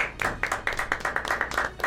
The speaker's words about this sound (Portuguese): Salva de palmas profissional.